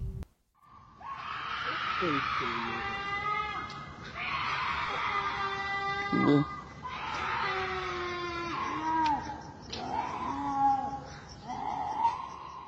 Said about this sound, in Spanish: Tú escuchas este sonido, este lamento, este grito en mitad de la noche.